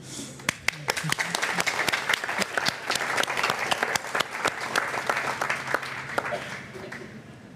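Steady audience applause fills the room, many hands clapping densely and fairly close for several seconds, with a low hum underneath and no voices standing out.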